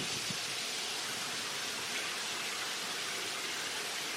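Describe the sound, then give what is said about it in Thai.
Dense, steady roar of heavy rain pouring down hard, a constant hiss with no pauses or variation, filling the whole scene with no voices. “วันนี้ฝนตกหนักตกแรงฝนตกแรง”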